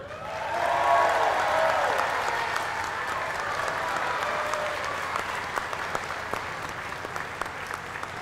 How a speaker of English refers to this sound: So, great job, young man. That's correct. Let's give him not only a round of applause, but a That's in the Bible t shirt.